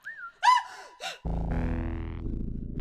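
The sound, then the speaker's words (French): A short, sharp cry of fright rings out, followed by a second briefer yelp, then a loud buzzing, musical effect sound swells in and continues to the end. “Bientôt suivi d'un cri d'effroi.”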